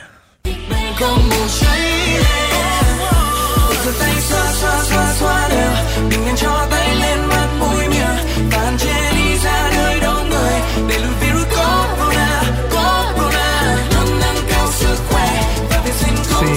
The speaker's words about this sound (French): je vais vous jouer la chanson officielle du coronavirus qui a été proposée par le gouvernement vietnamien la semaine dernière